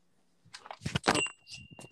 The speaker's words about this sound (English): I dropped my phone there for a second.